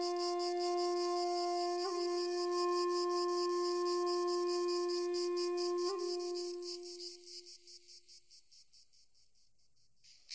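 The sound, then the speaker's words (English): Evening cicadas shrill in the maples in a steady, pulsing high drone, while a deep resonant bell-like tone rings beneath, struck twice and slowly fading, leaving the insects to thin out near the end. “The only sound evening cicadas shrill in the maples.”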